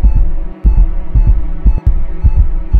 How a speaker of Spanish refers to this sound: Andrés siente un dolor agudo en el pecho, un latido errático lo consume